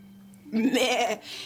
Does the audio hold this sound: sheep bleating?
yes